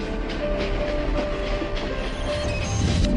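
A train rolls steadily along the rails with a continuous low rumble, faint rhythmic clatter of wheels and a thin sustained tone above, loud and unbroken throughout with no voices.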